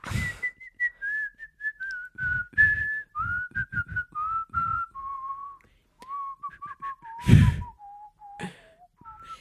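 A person whistles a slowly descending, wavering tune up close, the thin tone mixed with lots of breathy air and sharp inhales between phrases; no talking.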